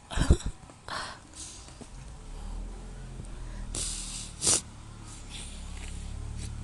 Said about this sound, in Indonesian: yeah narik-narik ingus tapi pakai sambil ketawa-ketawa